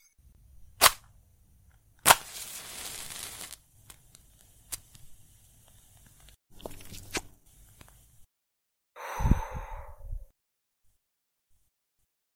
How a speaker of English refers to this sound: Do you mind if I uh, light a cigar? No?